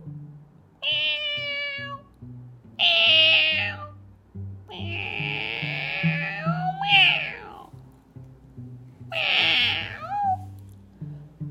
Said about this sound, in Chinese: 不过这天晚上，在屋顶上面。有一只猫，它喵喵喵喵的叫个不停。